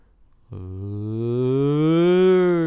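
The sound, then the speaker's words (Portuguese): A single voice mimics a crowd's jeering 'uuuh', one long droning vowel that starts after a brief pause and swells steadily louder and slightly higher in pitch for about two seconds. “aquele ur crescente, assim, né? ur do, do baixinho até o alto.”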